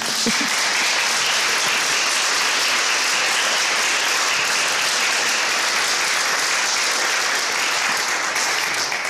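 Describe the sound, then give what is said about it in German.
Sustained applause from an audience at the close of an evening event with Bedford-Strom, on a hot day, a dense, steady wash of many hands clapping at an even loudness for about nine seconds, with no voices standing out. “der Beifall, den, nehmen wir, den berichten wir jetzt den, weiter.”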